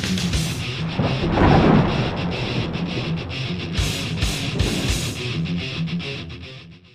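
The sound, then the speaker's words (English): Deep thunder rolls and rumbles through a storm over a backyard, swelling loudly early on, then cracking again in sharper bursts before fading out. Steady rain-like hiss underneath; no voices. “And it's, oh my God, that thunderstorm was friggin' sweet.”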